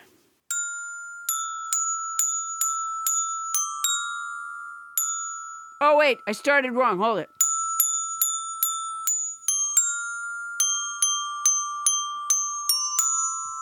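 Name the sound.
glockenspiel being played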